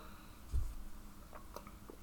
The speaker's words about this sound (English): Let me take a sip of my soda